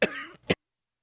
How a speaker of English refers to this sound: excuse me, man, I've had a little a little issue there. I apologize for coughing in your ear.